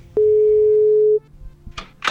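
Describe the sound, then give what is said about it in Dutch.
A single steady ringback tone on an outgoing phone call, a loud, low, pure beep lasting about a second, followed by quiet line noise and two brief noisy bursts. “Ik bel haar kort, want ze zit midden in de montage.”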